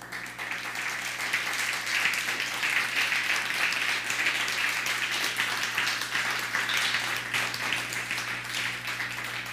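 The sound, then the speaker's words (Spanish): A crowd applauds loudly as a greeting to all the nations, a dense, crackling wash of many hands clapping at an even, sustained level, with a low steady hum underneath and no voices. “Les saludamos con un fuerte aplauso.”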